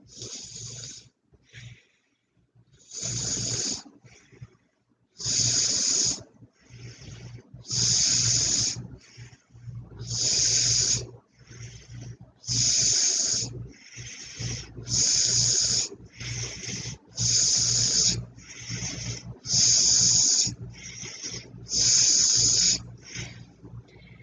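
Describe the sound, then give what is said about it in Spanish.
Rapid alternate-nostril breathing, inhaling through one nostril and exhaling through the other: a steady run of about ten forceful, hissing nasal exhalations every couple of seconds, softer inhales between them, with no talking. “Exhalamos con el otro. Ahora Vamos a hacerlo un poquito más rápido.”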